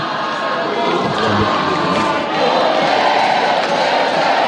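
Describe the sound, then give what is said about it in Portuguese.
A large organized crowd of supporters of federal deputy Baleia Rossi cheers and shouts together at the signing of the PEC, a dense, steady roar of many voices that stays loud for the whole stretch, swelling slightly near the end. “Tá aí com torcida organizada, Baleia, tá aqui.”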